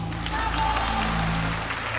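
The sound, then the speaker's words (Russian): A large concert hall audience at a ballet competition gives ballerina Eva Evdokimova a long ovation after she is awarded only a diploma; dense clapping fills the room at an even, sustained loudness with a faint low hum underneath. “Публика устроила долгую-предолгую овацию.”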